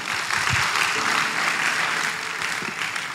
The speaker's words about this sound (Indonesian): Beri tepuk tangan yang meriah buat Tuhan.